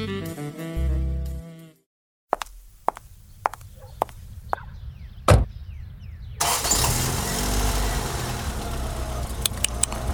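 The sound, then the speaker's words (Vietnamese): A few sharp clicks and thumps, like a door and movement, then a car engine starts at 5 in the morning and settles into a loud, steady rumble. No one speaks. “Làm gì mà tới 5 giờ sáng đã lên xe ô tô đi đâu nhở Đi tập thì đi bộ chứ đi ô tô làm gì”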